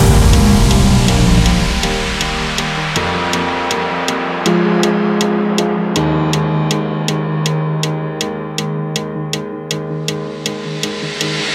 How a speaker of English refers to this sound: Here's the song of the week. Here's the song of the week.